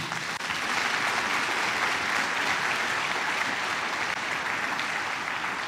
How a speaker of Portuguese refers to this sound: Pode aplaudir ao nosso Deus por isso?